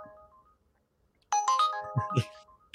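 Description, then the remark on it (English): A Lyft rideshare app's ride request alert sounds loudly on a phone, a bright multi-note electronic chime following a faint tone, with quick rising notes near the end. “everybody's checking their phones right now. Checking their phones. My phone is on. well, there comes Lyft.”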